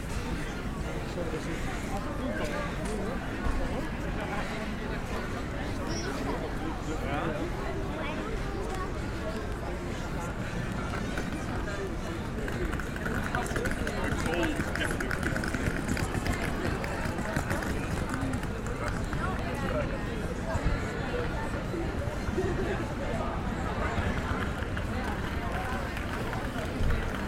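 A busy crowd of tourists, shoppers and families at Covent Garden, London, at Christmas, gathered to enjoy the festive lights and street performers, fills the air with a steady, dense murmur of overlapping voices and shuffling footsteps, holding an even level throughout with no single voice standing out.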